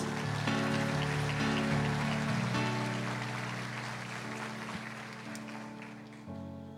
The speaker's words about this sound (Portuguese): Dê uma salva de palmas a Jesus